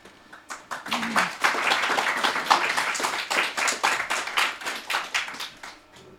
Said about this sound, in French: Attendez la fin pour applaudir.